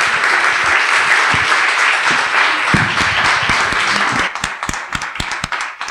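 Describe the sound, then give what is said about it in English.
Sustained audience applause, a dense wash of many hands clapping at steady loudness, thinning toward the end into fewer, more distinct individual claps. “Let's give Alexander a round of applause.”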